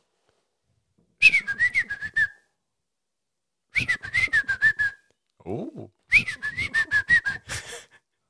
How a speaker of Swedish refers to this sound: Och det är om du vill höra hur den östra fattigpiskaviljan, nu är vi så här i fel ordning tror jag. Ja. Men det är så långt eh, ord på fågeln. Ja. Men eh, då låter den något sånt här då.